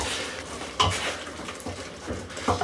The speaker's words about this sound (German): stelle ich erstmal die Teller ein bisschen zusammen